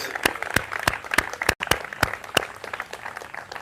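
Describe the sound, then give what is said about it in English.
A standing church audience claps their hands together in praise to God in a steady burst of applause, with several sharp, distinct claps standing out over a busy wash of many hands. “Let's give God a great big hand clap of praise.”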